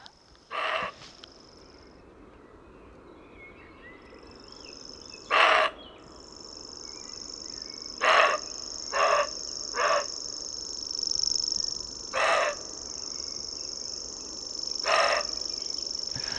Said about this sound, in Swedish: Vad är det som händer? Vadå? Det låter så konstigt. Det är rådjuret som skäller.